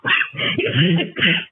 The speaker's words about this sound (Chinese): 对对对。就是有的时候会咳嗽一点。